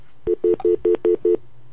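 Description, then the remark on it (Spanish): A dropped phone call tone: six short, evenly spaced beeps at one steady mid pitch, fairly loud, with no voices over them. “Se cayó, la llamadita.”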